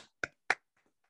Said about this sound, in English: Congrats! Con, uh, round of applause for the new owners of the Sarasota Square Mall. Everybody, clap it up! Clap it up!